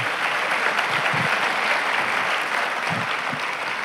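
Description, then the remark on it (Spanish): An audience at a sermon claps for God steadily and loudly for a few seconds, a dense, continuous patter of many hands, with no voices standing out. “¿Cuántos dan un aplauso fuerte a Dios hoy?”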